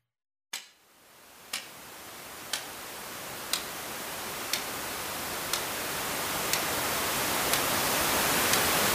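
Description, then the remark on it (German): A clock ticks steadily about once per second while white noise rises gradually beneath it, growing louder until it masks the ticks and they are nearly buried. “wenn wir jetzt dieses Ticken der Uhr als Grashalme betrachten”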